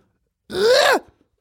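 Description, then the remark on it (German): A person's voice makes a single short, strained wailing cry that rises and falls in pitch, imitating a bear cub crying as it is taken from its mother. It's fairly loud, lasting about half a second. “Das ist der Klang eines Bärenbabys, wenn er von seiner Mutter entrissen wird.”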